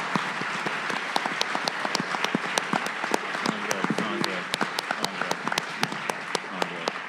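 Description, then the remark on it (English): An audience at a panel at the Chicago Athletic Association applauding Austin Vesely, Hebru Brantley and Andrew Barber of Fake Shore Drive, steadily for several seconds, a dense wash of many hands clapping with sharper individual claps standing out throughout. “So First off, huge, huge applause for Austin Vesely, Hebru Brantley, and Andrew Barber on Fake Shore Drive.”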